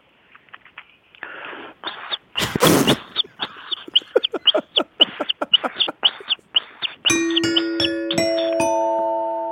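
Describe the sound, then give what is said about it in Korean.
A voice imitates a baby bird with a quick, steady string of high, short chirps, fairly loud, followed by a bright ding-dong chime ringing out at the end. “다시 한번 아기새 들어볼게요.”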